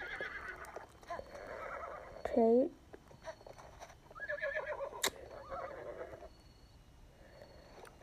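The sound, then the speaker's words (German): A horse whinnies loudly once, a short wavering neigh rising over game background sounds, with a person speaking briefly around it. “Okay, mein Pferd backt ein bisschen. An einem Stein.”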